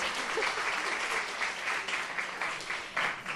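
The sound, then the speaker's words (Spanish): A crowd of students at the Instituto Cañada de las Heras in Molina de Segura, Murcia, applauds steadily, a dense wash of clapping that stays loud and even throughout with no voices standing out. “Eh, bueno, aplaudir que estamos aquí con ellos y con ellas.”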